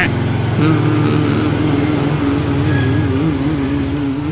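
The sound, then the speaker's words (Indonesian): A motorcycle engine drones loudly and steadily as it passes by, its pitch wavering slightly as the throttle shifts, filling the whole moment without a break. “waduh malah ada suara motor ya bentar ya”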